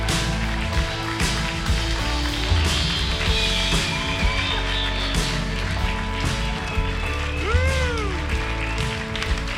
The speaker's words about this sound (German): Und ich würde mich freuen, wenn wir ihn ganz warm und leidenschaftlich begrüßen könnten mit einem mega Applaus.